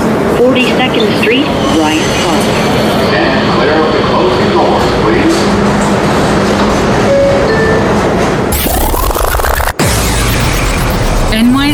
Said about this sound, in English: This is a Queens bound E train via the F line. The next stop is